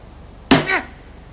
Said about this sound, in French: laissa échapper sa colère en donnant un violent coup de pied dans la roue avant.